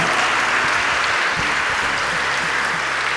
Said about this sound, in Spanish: Eh, prepárate porque vas a salir absolutamente transformado de este lugar por la gracia y el poder del Señor. Dar un aplauso ya agradeciéndole.